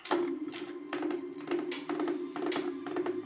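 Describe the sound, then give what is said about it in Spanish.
Rapid tapping in quick clustered bursts, imitating the hooves of a horse galloping over a cobbled street, with a steady low hum beneath; moderately loud, no talking. “Luego resonaron los cascos de un caballo que por la calle empedrada se acercaba a todo galope, güey.”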